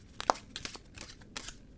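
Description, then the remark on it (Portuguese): A deck of oracle cards, the Oráculo da Rosa, being shuffled, with a handful of quick, crisp papery snaps and rustles spread over a couple of seconds, fairly quiet and with no talking. “Bora lá, vamos embaralhar as cartas.”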